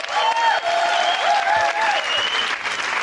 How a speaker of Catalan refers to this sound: I fora aplaudiment per una de les persones que més surt a la tele, a la ràdio i a part, bueno, és germana del Marc Giró.